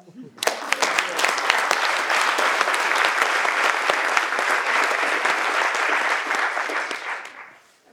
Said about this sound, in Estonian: siinpool kiidaks teda ja võib-olla teeks isegi ühe väikse aplausi talle.